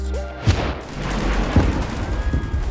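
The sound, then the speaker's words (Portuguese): A war-scene soundscape: a few sharp gunshot cracks and deep booming blasts go off at irregular intervals over a constant low rumble. “Você pode ter pessoas gritando em uma trincheira, diferentes tipos de armas disparando de diferentes lugares.”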